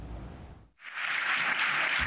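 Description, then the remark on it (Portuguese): After a brief low rumble and a momentary dip, loud sustained standing-ovation applause erupts from a large crowd in the European Parliament after a speech by Ukrainian President Volodymyr Zelensky, a dense wash of clapping, with no one speaking. “A Ucrânia chegou a ser aplaudida de pé no Parlamento Europeu.”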